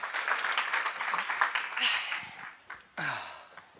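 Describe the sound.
A crowd applauds with dense, steady clapping for a couple of seconds, then it thins out and a short vocal sound, like a voice or exclamation, cuts in near the end.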